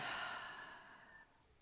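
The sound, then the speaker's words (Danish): A single long breath pushed out through the mouth after an inhale through the nose during a breathing exercise, a soft airy whoosh that starts strong and trails off over about a second, with no talking. “Simpelthen tag en vejrtrækning ind gennem næsen – og ud gennem munden.”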